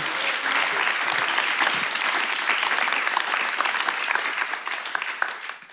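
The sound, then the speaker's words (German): An audience applauds steadily, a dense wash of many hands clapping at a fairly loud, even level that thins slightly toward the end. “Deswegen nochmal bitte einen kleinen, großen Applaus für dich.”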